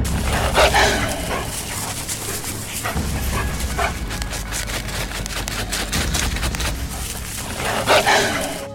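Wolves bark and yip in bursts, strongest near the start and end, with yelps layered over a steady low rumble of background noise; no one speaks.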